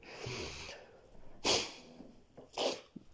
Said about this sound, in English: I'm blowing my nose.